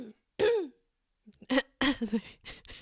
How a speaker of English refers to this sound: So just know that, of course, you're going to be hearing me clear my throat multiple times in this episode. Sorry about that in advance.